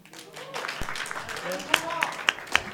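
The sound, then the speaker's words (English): Scattered audience applause for a contestant in a show: four or five sharp, distinct hand claps in a loose rhythm, following a brief stretch of voices murmuring in the background. “One round of applause for Master Chief.”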